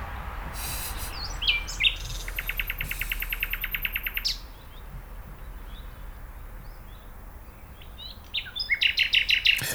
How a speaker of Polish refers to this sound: Ty chciałbyś koncert, ale czy zorganizowałbyś lepszych wykonawców niż tych naturalnych, których teraz słyszymy? Nie no, lepszych, lepszych sobie nie wyobrażam. To chyba sikorka.